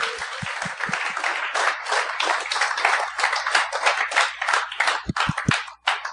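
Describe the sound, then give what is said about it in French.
An audience at a show bursts into sustained applause for the show's guests, dense overlapping clapping that stays loud and steady for several seconds, with a few sharper individual claps standing out at the start and end. “J'aimerais ça qu'on donne bonne main d'applaudissement pour mes, mes invités.”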